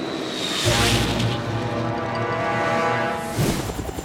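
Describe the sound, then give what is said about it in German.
A helicopter's rotors and engine roar steadily, a dense whooshing drone with a low throbbing hum that holds for several seconds, with no voices; the helicopter is ready to hook on a ball. “Samurai in einsatzzentrale Helikopter bereit zum Einhängen”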